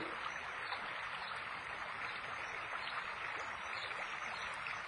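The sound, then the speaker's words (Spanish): A steady, continuous rush of flowing stream water, even and unbroken throughout, with a soft hiss and gentle babbling texture. No voices. “o tal vez hay un río”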